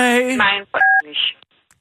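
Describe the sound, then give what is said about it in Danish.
A single short telephone keypad tone from pressing key 3 in an automated phone menu, where 3 is for sales and number transfer: a clean two-pitch beep lasting about a quarter second, sounding between bits of a voice talking just before and after it. “Tast 2 for generelle spørgsmål. du, du, 3 for salg og nummerflytning.”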